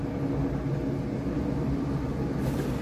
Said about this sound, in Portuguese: Agora eu tô vendo o helicóptero da polícia ali procurando os bêbados que pula na água. Provavelmente vocês vão escutar esse barulho.